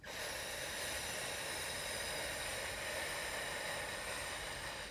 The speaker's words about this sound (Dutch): En dan start ik bij 3. 1, 2, 3. En je ademhaling inhouden drie, vier, vijf. En nu je ademhaling uit.